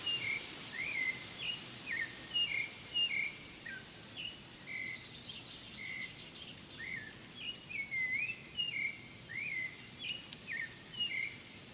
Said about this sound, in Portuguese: Há quem diga que o sabiá tem um canto triste, mas aqui no meio da mata das araucárias, ele soa como uma melodia agradável e relaxante. O canto vibrante do sabiá faz lembrar o som de uma flauta.